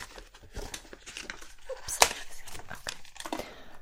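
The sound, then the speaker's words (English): Cardboard packaging from a MacBook box being handled: dry crinkling and scraping rustles across the whole clip, with one sharp snap or tear standing out midway, all at a fairly quiet level. “Um, just a little seems like a booklet maybe, but it oh no, it's just cardboard. Just cardboard here.”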